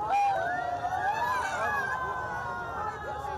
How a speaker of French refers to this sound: Il est près de 20h lorsque la flèche de la cathédrale s'effondre. Le long des quais de Seine, la foule désarmée hurle d'effroi.